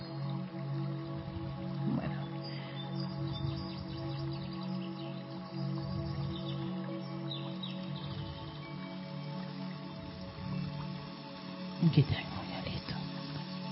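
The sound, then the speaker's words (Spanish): A Tibetan singing bowl, struck at the end of a set to begin another 4x4 breath, rings out with a steady, sustained shimmer of layered tones that hold evenly for the whole stretch, with a brief soft knock near the end. “Cada vez que terminamos un sex siempre voy a tocar el cuenco tibetano, que es para iniciar otra respiración de 4x4.”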